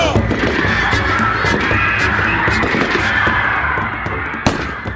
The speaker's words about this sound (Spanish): Todo ocurrió en cuestión de segundos. Se escucharon unos disparos y varios policías cayeron heridos.